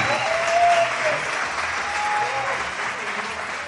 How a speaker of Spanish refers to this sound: Y toda la gente aplaudiéndote. Bien dices, no veo nadie, pero sí, se siente, se siente.